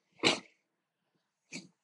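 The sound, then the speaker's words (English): Two short, explosive bursts from a person coughing and sneezing, the first louder and longer, the second brief, with a quiet gap between them. “My um, coughing and sneezing or wanting to sneeze and stuff.”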